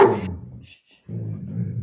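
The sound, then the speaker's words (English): A dog gives a short, sharp bark, then a faint high whimper follows after a brief pause, with low grumbling sounds continuing around it. “Oh, doggy.”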